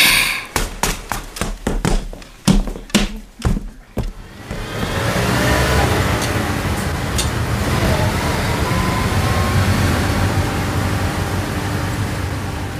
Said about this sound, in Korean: 우리는 다시 버스를 타고 한 시간이나 더 달렸다.